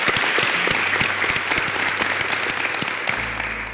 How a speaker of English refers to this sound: so one more round of applause. Thanks.